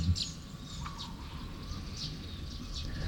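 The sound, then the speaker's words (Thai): Several birds chirp in short, scattered high calls over a steady background hush, fairly quiet, with no one speaking, on a cool, breezy morning with soft sunlight at a Buddhist dhamma garden. “เช้าเช้าก็บรรยากาศดีนะลมเย็นสบายดี แสงแดดอ่อนๆฟังเสียงนก”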